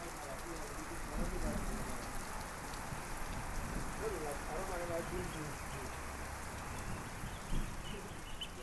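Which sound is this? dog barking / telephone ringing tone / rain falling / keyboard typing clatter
rain falling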